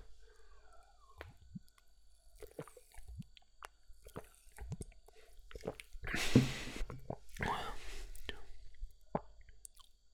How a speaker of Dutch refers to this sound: Ik ga eens een slokje nemen.